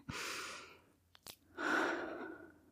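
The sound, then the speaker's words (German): A deep, airy breath drawn in, a brief pause with a couple of small clicks, then a long, full, relaxed exhale, fairly loud, with no talking. “Atmet ihr eigentlich noch? Tief ein.”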